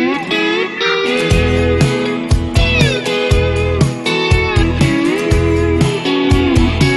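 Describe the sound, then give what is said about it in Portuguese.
A song from an acoustic album plays steadily and fairly loud, with layered melodic tones, a sliding lead line that could be a voice, and a regular low bass pulse underneath. “Esse álbum mais, mais acústico que eles fizeram agora. Escutem um pouquinho.”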